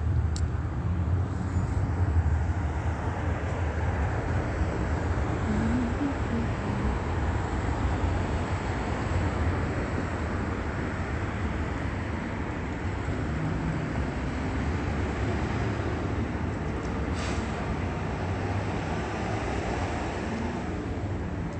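A steady, broad engine roar fills the whole stretch, like an airplane passing overhead, holding a constant loud rumble with no voices present; plane activity at Holt and Plum Avenue around 9:51 a.m.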